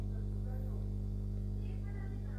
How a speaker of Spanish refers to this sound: perdón, se escuchan voces, creo que mi sobrina y mi padre, porque estamos por acá.